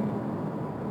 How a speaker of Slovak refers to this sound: Áno, toto je zvuk motora, tzv. korveta. Hej, ten režim špeciálny, keď ide okolo auto s e, motorom toto s motorom. Ale toto má motor, akože ten 2-litrový e, benzínový atmosférický motor plus elektromotor robia dobrú robotu.